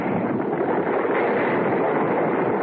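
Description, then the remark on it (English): A continuous, dense rush of small stones and gravel, dislodged by a person's feet on a cave roof, clattering down in front of the cave entrance, loud, a steady granular rattle that keeps pouring for a few seconds without letting up. “I struggled to stay where I was, and my feet dislodged a shower of stones.”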